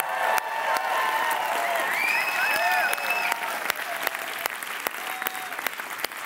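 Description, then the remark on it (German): A live crowd applauds steadily for several seconds, dense clapping filled with scattered whoops and high whistles, loud throughout without fading, cheering a band that has just performed. “Jubeln mal für die Videopodcast-Zuschauer, die sie wissen, das war eine krasse Band gerade, oder?”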